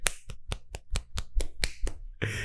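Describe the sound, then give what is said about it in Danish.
A quick run of about ten sharp finger snaps in a steady, brisk rhythm, crisp and fairly loud, followed by a short burst of hissy rustling noise at the end. No voices. “Ja, det var øh, mine fingre, der klaskede.”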